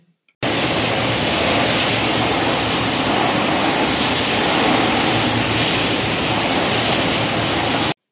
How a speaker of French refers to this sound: Les vents qui en sortirent étaient terribles.